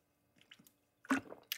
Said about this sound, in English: Let me get a drink of water.